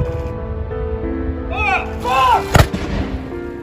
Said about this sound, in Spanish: Y con 41 disparos en distintos emplazamientos militares del Reino Unido, el país inició hoy con su luto nacional.